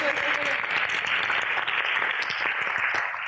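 Steady audience applause fills the whole stretch, dense overlapping claps at a sustained, fairly loud level without pause, a hint of crowd noise mixed in.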